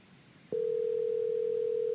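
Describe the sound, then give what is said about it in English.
A telephone dial tone as a call is being placed, a steady, loud, unbroken hum that begins suddenly after a brief quiet moment and holds at one even pitch to the end, with no voices. “So now we're calling”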